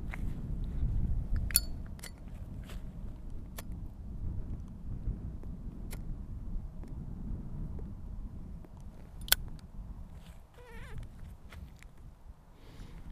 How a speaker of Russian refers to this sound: Еще и зажигалка тухнет.